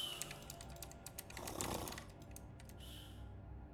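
Rapid, irregular clicking of a computer keyboard and mouse in a dormitory while someone plays a computer game, a quiet patter of sharp taps with a brief soft rumbling swell in the middle; no one speaks.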